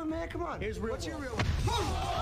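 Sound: punch landing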